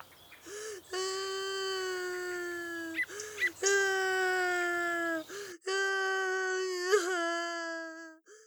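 A boy, the neighbours' son who has fallen off his bicycle, cries loudly in a neighbourhood park in three long, drawn-out wails separated by short catching breaths, with no other sounds around him.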